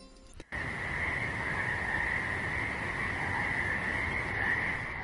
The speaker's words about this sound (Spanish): Ahí le tenemos, el sapo por la noche.